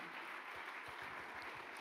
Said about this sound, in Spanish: Vamos, del otro aplauso fuerte.